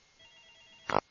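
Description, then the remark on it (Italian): A short burst of a telephone ringing with an incoming call, bright and fairly loud, trilling rapidly for a fraction of a second after a quiet hum, with no one speaking. “C'è una telefonata.”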